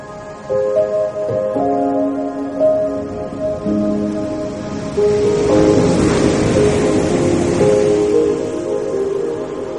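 Ocean surf roars onto a beach, a broad rushing wash that swells louder around the middle and stays heavy, with steady sustained musical tones running underneath.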